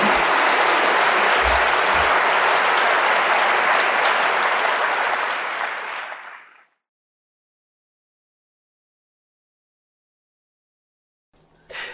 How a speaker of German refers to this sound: Nochmal einen großen Applaus und vielen Dank.